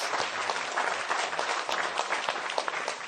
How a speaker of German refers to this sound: Dann würde ich doch mal sagen, ähm, ja, lehnt euch zurück, Witzbattle in Folge 41 startet jetzt. Applaus. Applaus.